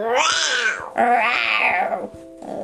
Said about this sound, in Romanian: Rage pantera, a ei era laba și sare pe girafă să-i înnoade gâtul.